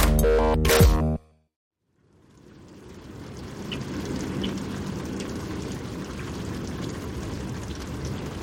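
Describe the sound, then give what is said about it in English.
After a brief loud tonal burst and a second of silence, steady rain from an out-of-season December thunderstorm in New England fades in and keeps falling, a dense, even patter with scattered sharper drops, with no voices. “Almost no snow here in New England, but lots of rain, thunder, and lightning, which is definitely unseasonable.”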